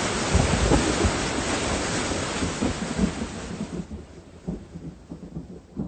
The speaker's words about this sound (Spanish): ¿Qué? ¿Ya es todo? Empezó a llover nomás para que me empapara y duró tres pinches minutitos.